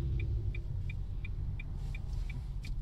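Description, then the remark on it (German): A few motorcycles rumble past, a heavy, steady low engine drone filling the scene, with a regular high-pitched ticking beep repeating about three times a second on top. “Kommen jetzt alle vorbei geknattert.”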